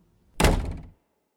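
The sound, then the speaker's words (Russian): A wardrobe door is shut with a single solid, low thunk that rings out briefly and fades within half a second. No voices accompany it. “Эй, слышь, шкаф закрой!”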